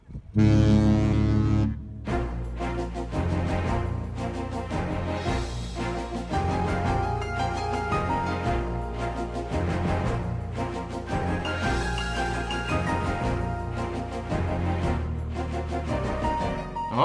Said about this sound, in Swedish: Trudelutten ja. från ja, eh, tv-programmet Rederiet